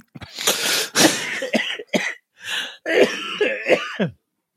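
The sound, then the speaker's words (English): A run of harsh coughs and throat clearing from a person who is sick, several bursts in quick succession with brief gasping breaths between them, loud and with no talking. “I'm like, there's not a lot of outtakes this week because every outtake is me coughing and gasping for air, which is not as funny as you might hope.”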